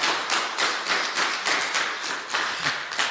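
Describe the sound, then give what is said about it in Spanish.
A crowd claps together in a steady, rhythmic beat, dense and fairly loud throughout, with no voices standing out. “Denle un aplauso, Señor.”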